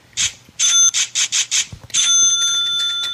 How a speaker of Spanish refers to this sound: A mí el que más me gusta es el de la caja registradora.